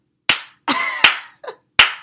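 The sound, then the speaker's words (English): A handful of sharp, loud hand claps at uneven spacing, each a crisp smack with a quick decay, plus a softer, quicker clap tucked between them; no talking. “clap though, because you know everybody when the pastor preach, they be like, "Go ahead, pastor."”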